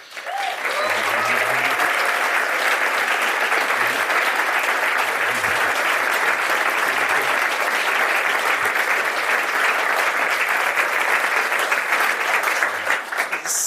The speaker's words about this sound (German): sehr ungewohnt für einen Wissenschaftler, Applaus kriegen, bevor man irgendwas sagt. Normalerweise kommt zuerst der Inhalt, dann der Applaus, aber als Künstler lebt es sich gut, muss ich sagen.